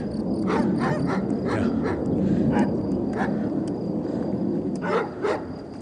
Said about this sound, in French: ce sont des chiens.